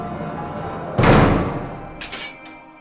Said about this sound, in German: Dann schließt sich die Tür seiner Zelle um 8 Uhr abends.